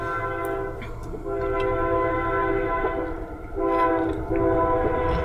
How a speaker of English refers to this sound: For those who don't know, there's a train coming. There's a train a coming.